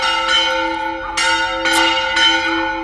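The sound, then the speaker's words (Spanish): A church bell rings loudly and steadily as people go in to Mass, about five strikes at an even pace, each blending into a long, humming ring that hangs between the hits. No one is speaking. “Vamos, vamos a dejar, vamos a dejar la campana. La gente entra misa, vamos a transmitir en directo, ¿no?”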